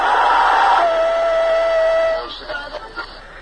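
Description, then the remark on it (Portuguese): A stadium crowd roars loudly with a steady held tone running through the noise, then the din drops off abruptly into quieter, scattered bursts of applause as the whole stadium applauds the Criciúma football team. “Inteiro estádio aplaudindo o time do Criciúma.”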